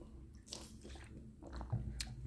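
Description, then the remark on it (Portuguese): Someone takes a few sips of water, with wet mouth sounds and soft gulps as they swallow. Nobody speaks. “só aqui um bocadinho de beber água.”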